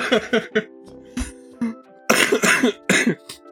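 A man coughs repeatedly right up against the microphone, a string of loud, rough bursts in an uneven rhythm, the last few heavier and longer.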